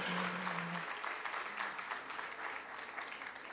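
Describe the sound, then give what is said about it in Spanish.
An audience applauds couples married more than 18 years in a dense, steady wash of clapping that holds at an even, fairly loud level for the whole stretch, with no one speaking over it. “Ok, un aplauso a ustedes, claro, por favor, más fuerte.”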